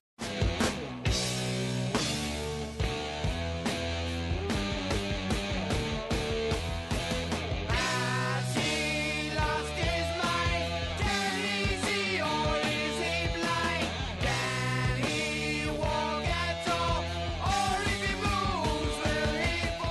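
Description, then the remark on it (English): A loud, dense heavy metal passage driven by a gritty, distorted electric guitar riff over pounding drums, played steadily for the whole stretch with no voices. “When we think of distortion in heavy metal, it's usually marked by that edgy, growling feel.”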